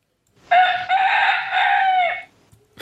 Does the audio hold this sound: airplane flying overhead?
no